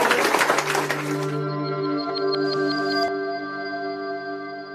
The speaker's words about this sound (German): Da lässt er sich beklatschen, der Seehofer.